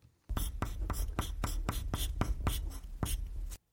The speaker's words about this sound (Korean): 지금 나오는 거는 여러분들 제시어가 아니라 여러분들이 쓰고 있는 소리입니다. 쇼리 씨가 직접 쓰는 소리입니다.